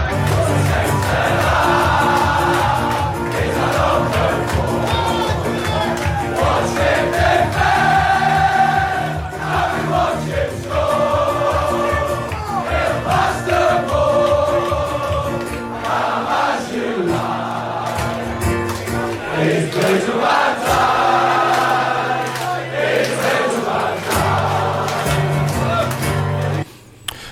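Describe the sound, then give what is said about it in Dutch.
A large football crowd sings a chant in unison to the melody of the Liverpool song for Virgil van Dijk, a loud, steady mass of voices carrying a repeating melody with rising and falling phrases over a constant roar, continuous for nearly half a minute. “Maar het is op de melodie van eh, dat liedje voor Virgil van Dijk bij Liverpool.”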